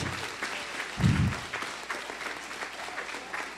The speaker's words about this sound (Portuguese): Aplaude, ele aplaude.